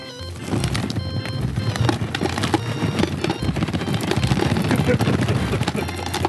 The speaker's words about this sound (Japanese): なんか恐ろしい音が鳴ってるけど今これ氷砂糖入れてる音ですからね